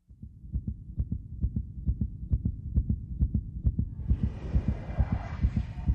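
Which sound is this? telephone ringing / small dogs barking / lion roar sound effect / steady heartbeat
steady heartbeat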